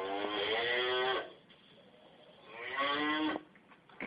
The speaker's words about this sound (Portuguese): O touro esbravejou.